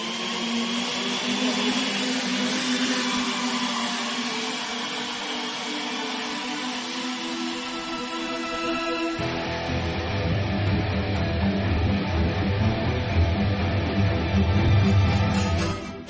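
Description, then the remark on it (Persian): A low-noise drone hovers with a steady, whiny motor hum that holds throughout; about halfway through, a deeper rumbling layer joins and the sound grows slightly louder. No one speaks. “اما نه نکنه پهبادهای تبلیغاتی دو منظوره باشن و برای جاسوسی هم استفاده شن مثل همین پهبادی که الان صداش رو میشنوید با کمترین صدا”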